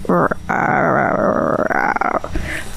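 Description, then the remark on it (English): A person's voice imitates the creepy, gurgling growl of an underwater toy heard inside a bathroom, a low, raspy, sustained rumble lasting about two seconds, fairly loud, like a distorted toy sound. “it just sounds so scary. Like so, somebody's possessed or something.”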